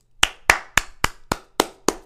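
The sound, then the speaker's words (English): Seven sharp, evenly spaced hand claps in a steady quick rhythm, like one person applauding alone, applauding John Harbaugh and the Baltimore Ravens organization for hiring Todd Monken as offensive coordinator, each clap crisp and bright with no voices. “Huge round of applause to John Harbaugh and the Ravens organization for hiring Todd Monken.”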